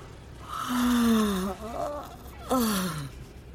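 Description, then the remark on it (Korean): An elderly woman gives a long, breathy yawn with a drawn-out moan sliding downward in pitch, then a shorter second groaning exhale, fairly loud with no talking. “할머니가 하품을 한다.”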